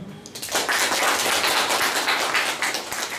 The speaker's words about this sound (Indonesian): Coba tepuk tangan yang tahu dong.